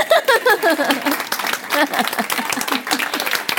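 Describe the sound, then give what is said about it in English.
An audience bursts into steady applause for the speaker's husband, many hands clapping densely for several seconds, with a few voices and some laughter mixed in near the start. “you know, I listened to him and an applause for the husband.”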